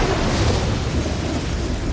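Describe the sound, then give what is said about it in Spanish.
A loud, sustained blast of deep rumbling roars steadily for a couple of seconds: a heavy explosion from a powerful explosive, set off by a phone call, at the US air base of Incirlik, Turkey, with broad crackling noise and no voices. “Se realiza una llamada y la base aérea estalla en los aires.”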